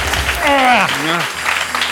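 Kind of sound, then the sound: crowd, audience applause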